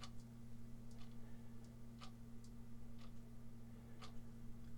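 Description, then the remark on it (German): A wall clock on the left ticks steadily at about one beat per second, faint, over a low constant electrical hum in a combined living room, bedroom and study. “Hier links ist eine Uhr, wenn man sie vielleicht mal hört.”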